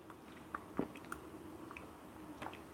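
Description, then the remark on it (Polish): A quiet sip of water: soft wet mouth clicks and a brief gulp near the start, followed by faint swallowing sounds, with no one speaking. “łyk wody i mówię o konkursie.”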